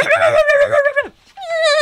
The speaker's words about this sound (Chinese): 哎呦，小朋友，发生什么事情啊？什么声音？怎么走到一半，突然听到汪汪汪啊！